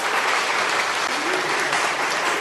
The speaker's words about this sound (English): All the men in the room obediently clapped. Some even went so far as to stand and applaud their partner.